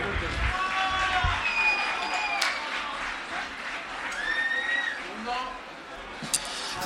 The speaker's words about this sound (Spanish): Un aplauso fuerte.